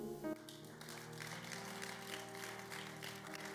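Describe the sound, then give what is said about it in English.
An audience claps steadily, a dense crackle of many hands, over sustained keyboard chords that ring beneath it throughout. No one speaks. “I thought you clap.”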